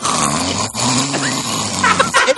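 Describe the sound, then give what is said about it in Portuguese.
A voice with a finger in the ear imitates the Predator's guttural, rattling scream, loud, held for about two seconds with a brief break, then ending in a few strained, higher-pitched bursts. “Ele bota o dedo no ouvido e aí abre a boca e fica fazendo tipo um barulho muito esquisito grito. Assim, e predador, assim, né?”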